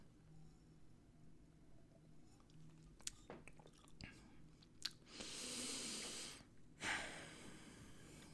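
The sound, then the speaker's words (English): Quiet mouth sounds as a person sips Larceny Barrel Proof B521 bourbon whiskey: a few small wet clicks and a sip, then a long breathy exhale and a second short, sharp breath. No one speaks. “First sip just goes right down the gullet, as we know.”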